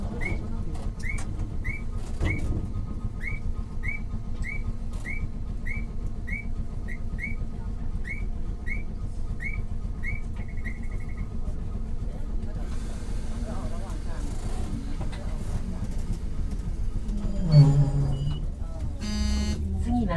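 Interior sound of an old Keifuku Electric Railroad Mobo 101 type tram running along the line from Arashiyama toward Katabiranotsuji, with a steady low rumble of motor and wheels, a repeating series of short beeps in the first half, and a brief clunk near the end.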